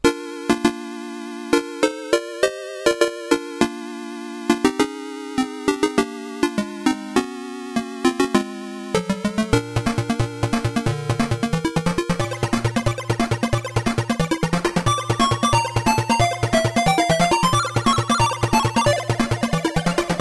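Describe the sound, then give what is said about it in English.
Chiptune video game music from Sega Chess for the Master System, the track White Winds composed by Matt Furniss: bright square-wave melody notes step through a halting opening phrase, then a busier section kicks in with fast arpeggios over a steady bass line and rapid percussion ticks. “This is White Winds from Sega Chess, composed by Matt Furniss.”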